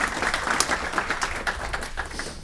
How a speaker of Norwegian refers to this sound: Ojsan. Var det tilløp til applaus? Det var nesten.